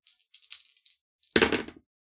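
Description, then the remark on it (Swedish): Dice rattle briefly in a hand, then tumble onto a hard table with a burst of clattering knocks that settle within half a second, as a player rolls again in a tabletop game to see if they succeed. Fairly loud, with no one talking. “Du får slå ett slag till för att se om du lyckas.”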